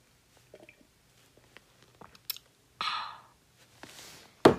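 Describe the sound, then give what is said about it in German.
Someone lying in bed takes small sips of water: soft wet mouth clicks and gulps scattered over a few seconds, followed by a breathy exhale and a sharper sound at the end. “Ich habe ein bisschen Wasser getrunken.”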